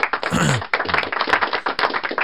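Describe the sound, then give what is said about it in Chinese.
A brief, small round of applause: a few people clapping in quick, irregular, crisp claps that run steadily for a couple of seconds at moderate loudness, with no talking over it. “这波应，我觉得此时应该稍微有点小掌声啊。”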